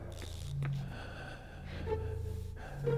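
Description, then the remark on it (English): An unconscious man's ragged, gasping breaths, several rough intakes of air with raspy snorting edges, with no talking. “Well, he's still breathing.”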